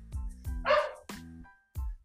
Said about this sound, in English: and dog bark noted as well. I was waiting for that. I was waiting for that.